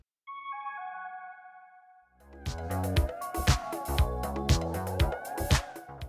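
A few scattered, bright, high-pitched synth keyboard notes in a song ring out alone and sustain for a couple of seconds, then a full band with thumping drums and bass crashes in underneath.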